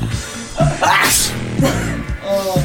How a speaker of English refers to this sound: Sorry, talking about dragon rig always makes me sneeze. Dragon rig? it always makes me sneeze. I'm allergic to it.